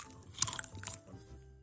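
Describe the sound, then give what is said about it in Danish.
Someone chewing small pork sausages, with a quick cluster of crisp, crunchy bites followed by softer, wet mouth sounds. No talking, just the short chew. “Vi smager pøllen, mine damer og herrer.”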